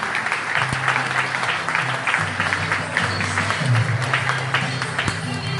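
An audience claps steadily for several seconds, a dense, even wash of applause with a low hum and a few faint tonal notes running underneath.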